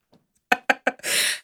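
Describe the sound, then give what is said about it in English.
A sneeze: three quick, sharp catching breaths in a steady rhythm, then a loud, hissing burst of breath that holds for about a third of a second before cutting off. “Bless you.”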